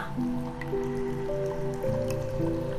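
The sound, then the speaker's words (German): Water drips steadily in a grotto with several stalactites hanging from the closed part of the ceiling, the drops plinking with a hollow echo over a sustained, humming tonal backdrop. There are no voices. “Am geschlossenen Teil der Decke hängen mehrere Tropfsteine herunter.”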